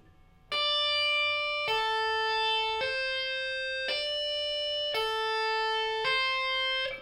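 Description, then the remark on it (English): A slow tapped electric guitar pattern, including a hammer-on with the fourth finger on the eighth fret of the E string: about six bright, sustained notes, each ringing for roughly a second before the next, shifting between a few pitches, played alone. “So the whole pattern goes like this slowly.”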